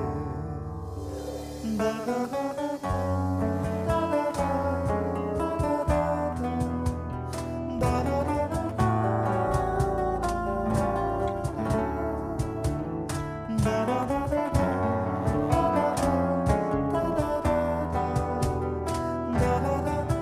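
A recorded song plays steadily at full level, with dense harmonic instrumentation and a strong, continuous bass line throughout, with no talking over it.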